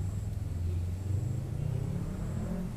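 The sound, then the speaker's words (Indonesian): A steady, low engine rumble of congested road traffic, with idling cars droning and no voices, holding at an even level throughout. “Itu Orang lagi, lagi macet.”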